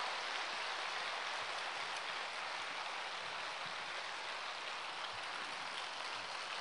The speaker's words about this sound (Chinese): 掌声像雷鸣般的响起。谢谢大家！哎呀，谢谢你们的鼓励呀！本来我明天就不想讲了，你们一鼓掌，我明天又要讲了。